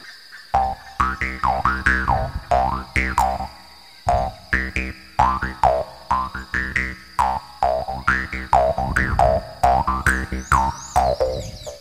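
Bubbling sounds heard over a telephone line: a steady, rapid train of gurgling, springy blips that swoop up and down in pitch, fairly loud, with only a brief pause partway through and no voices.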